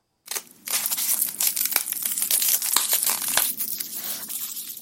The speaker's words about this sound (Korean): 아, 다른 소리를 연상할 수 있는 것들이 많긴 하지만 힌트를 들었을 때는, 아, 분명히, 예, 분명히 마늘이 확실합니다. 오늘의 소리 정체는 바로 마늘이었습니다.